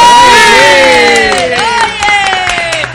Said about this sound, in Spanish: Un, aplauso para el padre y madre.